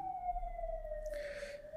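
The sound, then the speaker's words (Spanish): An ambulance siren wails outside, a steady high tone that slowly slides lower as it passes by, with a brief rush of traffic noise partway through. No one speaks. “Sí, qué irrespetuosa la gente que, tiene que pedir una ambulancia.”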